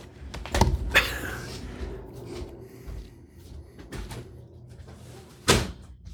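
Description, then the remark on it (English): A window being closed: a couple of knocks and a brief scraping slide, quieter handling, then one firm thud as it shuts. No one speaks. “maybe you do want to close that I'll, window. I'll close the window.”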